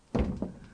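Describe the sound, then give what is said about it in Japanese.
An old wooden toilet door with a porcelain handle, in a historic building in Japan said to have the country's first Western-style toilet, opens with a dull, heavy thunk, followed moments later by a softer second knock as it swings, with no one speaking. “このドアはすごいですねドアの握るところが陶器でできておりましてねこれはよう残してありますね。”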